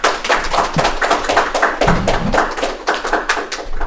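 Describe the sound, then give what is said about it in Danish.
An audience claps steadily in dense, overlapping applause, fairly loud, for a guest coming up onto the stage, with a continuous patter of many hands throughout and no voices standing out. “vil I andre ikke klappe af”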